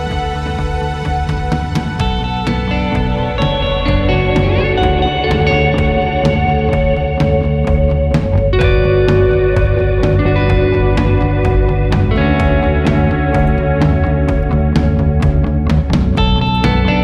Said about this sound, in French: Pas de keyboard et pas de synthé. Attention, ce que vous entendez, c'est que des guitares.